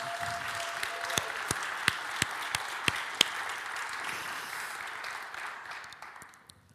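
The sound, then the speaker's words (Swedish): An audience applauds for several seconds, a dense steady patter of many hands with a few sharper individual claps standing out early on, then tapering off toward the end. “Kan vi inte ge David en applåd idag?”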